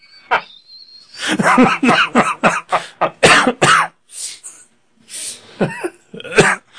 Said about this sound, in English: uh, this is uh, this is an episode full of coughing. Yes. Yeah. Uh, just to be warned.